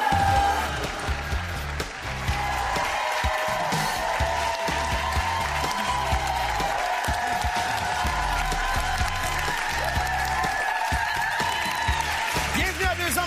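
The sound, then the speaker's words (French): A studio audience applauds and cheers steadily and loudly throughout, a dense wash of clapping with scattered whoops and crowd voices, and a sustained tonal sound running underneath. “Avant-dernière émission de la saison. Applaudissements!”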